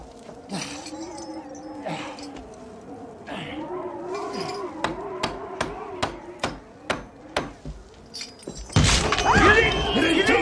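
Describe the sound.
A hammer strikes nails to nail a door shut against a blizzard, in a quick, steady series of about nine sharp, ringing blows over a sustained wailing voice, followed by a sudden burst of loud, harsh noise.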